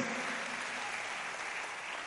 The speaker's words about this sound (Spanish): Ese aplauso me lo está faltando.